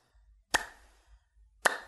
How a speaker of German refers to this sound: Ich klatsch gerade.